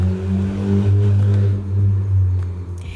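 A car engine rumbles and revs outside, its low steady drone swelling and easing over a few seconds, fairly loud and continuous with no one talking.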